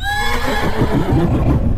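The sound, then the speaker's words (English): A horse harnessed to a trap screams in a frenzied whinny, loud, its shrill quavering cry sliding down into a rough, shuddering neigh over about two seconds. “that was when the horse's screaming reached its frenzied peak.”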